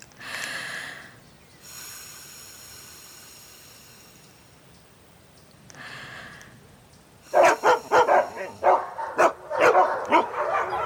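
A dog barks rapidly and loudly, a quick run of sharp, close barks after a quieter stretch with a sustained whistle-like tone.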